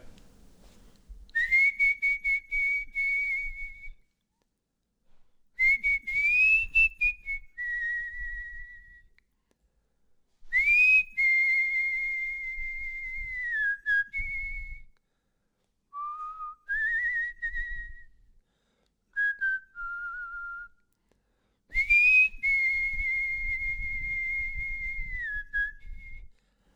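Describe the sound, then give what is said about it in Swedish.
A person whistles as a voice warm-up in a home in Stockholm, in a series of clear, sustained notes with rising and falling slides, broken into several short phrases by brief pauses, with no talking. “Kan jag göra en uppvärmning av rösten med vissla? Det gör jag.”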